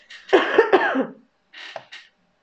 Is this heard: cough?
yes